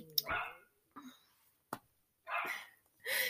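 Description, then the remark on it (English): A dog barks a few times in short, separate bursts with pauses between, in the background at a house. “Sorry about the dog in the back.”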